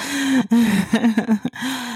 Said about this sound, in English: This man is not snoring. Oh my God. I told him, you can stay in here if you, as long as you don't snore. Of course, he's snoring. Oh, God.